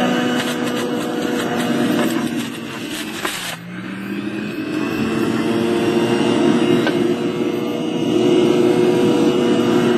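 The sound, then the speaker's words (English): An electric juicer motor, switched on to juice fruit and vegetables such as apple, celery, lemon and orange, runs loudly and steadily with a droning, whining hum, dipping briefly partway through before picking back up to a constant roar. No one speaks. “So I will show you just how this thing works. So you push the on. Hair take off sounds just like a jack.”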